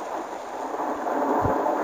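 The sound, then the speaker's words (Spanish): Heavy rain hisses steadily through a stormy scene, with a low, muffled rumble of thunder swelling briefly near the end. No voices. “El gran fuego está ahí, como esperándonos, tan tranquilo bajo su tormenta.”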